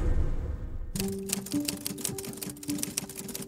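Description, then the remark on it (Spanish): After a moment of low rumble, typewriter keys start clacking rapidly and steadily as a writer types in a smoke-filled study on a Sunday morning, a busy stream of sharp strikes over a faint sustained tone in the background. “Stephen escribe, sin resaca un cigarro llena de humo el estudio.”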